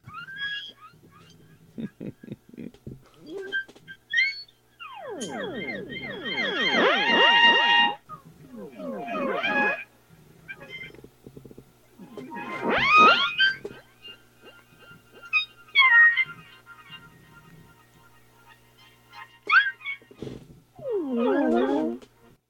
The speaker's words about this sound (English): So that's the so there's an instrument that came out called the theremin that basically used in 50 sci-fi. It was used in the beginning of the original Star Trek series, you know, the theme song.